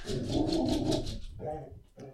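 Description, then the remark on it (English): Finn the dog barks in a quick run of short yaps, followed by a couple more scattered barks, moderately loud with no one speaking over it. “There goes Finn barking.”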